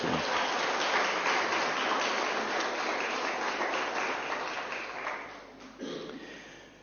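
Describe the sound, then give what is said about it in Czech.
An audience claps together in a sustained burst of applause for a church member's 70th birthday, a dense crackle of many hands that gradually thins out over several seconds before a brief final flurry. “Můžeme mu zatleskat.”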